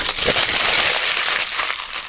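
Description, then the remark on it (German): Aluminium foil wrapped around homemade waffles crinkling and rustling as it is opened for about two seconds, a steady, fairly loud stream of bright, papery crackles with no voices over it. “Ihr hört gerade das Knistern von der Alufolie, weil die habe ich in Alufolie als guter Hausmann eingeschlagen.”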